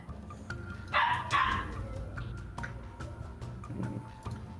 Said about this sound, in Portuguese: Gente, te... acho que tem um cachorro latindo aqui no condomínio. Se estiver incomodando, me avisa então.